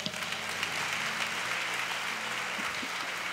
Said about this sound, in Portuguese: Fala comigo assim: o melhor tempo da minha vida, eu estou entrando nele hoje, porque Deus não é um Deus de momento, porque Ele é o Deus da jornada inteira. Quem crê nisso, aplauda ao Senhor.